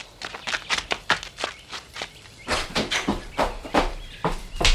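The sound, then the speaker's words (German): Footsteps walk steadily into a house as someone goes to fetch a glass of water, a series of crisp, evenly paced steps on a hard surface with no one speaking. “Ich gehe nur eben ins Haus.”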